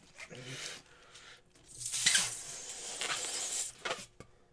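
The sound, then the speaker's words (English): A man inflates a balloon to make a balloon animal, with a long, breathy rush of air that swells and hisses for a couple of seconds, then tapers off, with faint rubbery squeaks. “is blowing up a balloon animal.”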